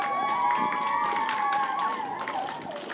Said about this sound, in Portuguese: Eles foram recebidos com aplausos na cidade de El Paso, no Texas.